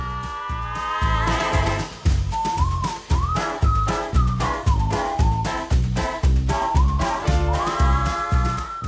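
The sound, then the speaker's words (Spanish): Upbeat instrumental theme music with a whistled melody gliding over a steady, punchy bass beat and bright rhythmic chords, played loud and continuous with no voices. “por el tema que escuchan en la intro.”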